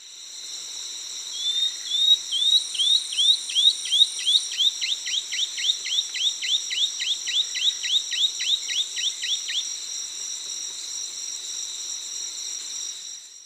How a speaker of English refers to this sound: That was a really bad recording, wasn't it, Ken? It was mostly crickets.